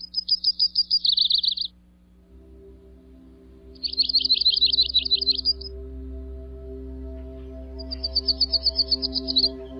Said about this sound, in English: Here's a typical song of the yellow rumped warbler.